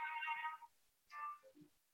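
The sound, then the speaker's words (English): A mobile phone ringtone goes off, bright electronic melodic tones in two short bursts followed by a couple of lower notes, fairly loud with no voices. “so it's very embarrassing. Phone's gone off.”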